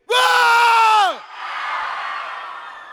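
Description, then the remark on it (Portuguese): A crowd lets out a loud, sustained collective shout lasting about a second, cutting off abruptly into the lingering murmur and chatter of a large audience. “Vamos lá, vamos dar o último grito aí.”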